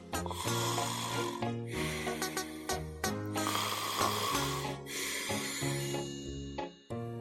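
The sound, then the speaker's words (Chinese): Four loud, raspy snores in a slow, steady rhythm, each a long rough rumble with a brief pause between, over a continuous tonal musical backing, with no talking; a character who fell asleep while counting sheep aloud. “有一个方法就是数羊头，他大声的数着，一、二、三、四，数着数着，他就开始打呼了。”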